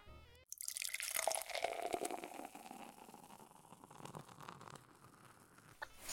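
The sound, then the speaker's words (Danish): Schnapps is poured into glasses, a steady trickling splash lasting several seconds, with a few drips toward the end and no one speaking. “Så skal vi ikke starte med en snaps, fordi at...”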